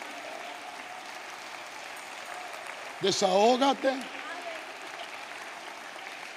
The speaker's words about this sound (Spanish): Si le va a dar un aplauso, dáselo.